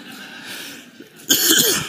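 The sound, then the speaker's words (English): After a stretch of quiet room tone, a sick person's sudden, harsh, loud cough bursts out near the end, with a rough, voiced rasp trailing through the final moments. “It's not just like my lungs going, this is bad, but it's my head thinking, I'm sick and I'm coughing, I can't take this anymore.”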